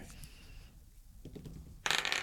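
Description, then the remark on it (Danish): Dice clatter across a hard tabletop in a short rattling burst, ending in a louder flurry of bright clicks as they tumble to a stop, fairly loud. The roll totals 18. “Jeg slog 18.”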